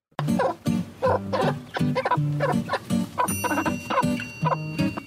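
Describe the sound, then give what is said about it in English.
A mother hen clucks in a quick, steady rhythm, short repeated low calls telling her chicks she has found food, with faint higher peeping in the background, continuing for several seconds without any talking. “was talking about a, a noise that the chicken was making, the mom chicken”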